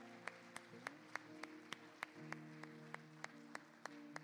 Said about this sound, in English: Can you give Jesus a hand clap of praise? Amen.